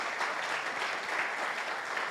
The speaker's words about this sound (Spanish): Entonces démosle un aplauso, ofrendémosle a Él un aplauso.